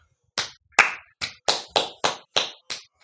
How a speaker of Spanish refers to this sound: Muy bien, muy bien. la ovación.